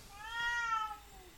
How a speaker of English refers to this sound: Cat. Well, cat, not baby. That is a cat.